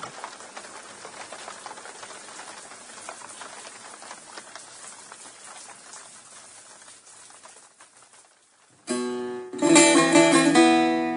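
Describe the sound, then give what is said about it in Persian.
Steady, dense rain patters on a metal roof for about nine seconds, constant, then briefly thins before loud music with sustained tones cuts in. “بیرون می آییم عجب بارانی گرفته است”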